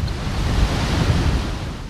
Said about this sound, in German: Wir haben ja gerade den Ausläufer noch von einem Tropensturm, der hier heute vorbei weht und ja, haben mal so drei bis vier Meter Wellen in der Bucht